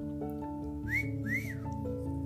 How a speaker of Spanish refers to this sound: Y si yo le hacía este chiflidito,